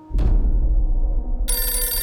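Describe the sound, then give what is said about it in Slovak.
A telephone bell starts ringing about halfway through, a bright sustained electronic trill over a low rumbling background, a phone ringing at a son's home on the afternoon of 5 February; no one speaks. “5. februára popoludní zazvoní u syna Michala telefón.”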